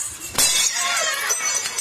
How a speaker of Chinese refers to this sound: 看见没有？罐儿都碎了，你还查盖儿是谁碎的吗？啊？哎呦，大清乾隆年制。哎呦喂，这多好的坛子呀！